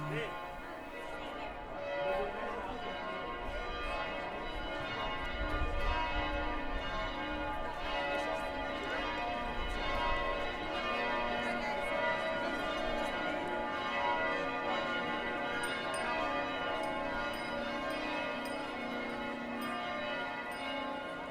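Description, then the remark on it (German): Church bells peal continuously for about twenty seconds, their overlapping ringing tones forming a dense, steady wash of sound at an even volume. “habe ich in den letzten Jahren ein Thema und das sind die Kirchenglocken.”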